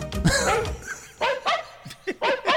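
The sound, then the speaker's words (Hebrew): A dog barks repeatedly on a track, track 3 on side B of a Bank Discount compilation record edited by Ilan Ben Shahar: a long, loud opening bark, then a string of shorter, sharp barks in an uneven rhythm, with no one talking. “בוודאי ובוודאי זוכר את קטע מספר 3 בצד ב' של האוסף, שנקרא …, ומבצע אותו... כלב.”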